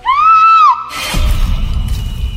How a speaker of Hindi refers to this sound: आहन की चीख सुनकर आकृति की आंख खुली और आंख खोलते ही इस बार आकृति चीख पड़ी